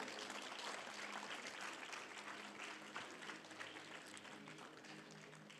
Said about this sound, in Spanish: Denle un aplauso, por favor, a nuestro grupo de jóvenes.